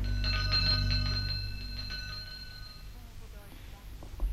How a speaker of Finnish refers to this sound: Näin kellon kilinään loppui tämä meidän näytteemme, joka oli siis vuodelta 49, 24 vuoden takaa.